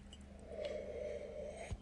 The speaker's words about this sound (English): I tend to check mic levels using, uh, you know, the tried and true coffee sip. okay, let's try that again.